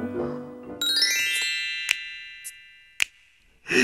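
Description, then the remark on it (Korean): A bright electronic email notification chime, signalling a new email arriving, rings out with a shimmering, sustained tone that slowly fades, followed by a couple of sharp ticks and a brief noisy rustle at the end. No one speaks. “어, 메일이 왔네.”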